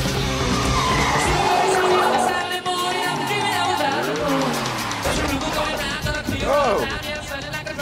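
Tires squeal loudly as a hotwired car, driven wildly, skids, with engine revving and sliding pitch sweeps throughout, over a dense, busy backdrop that sounds like a chaotic driving scene.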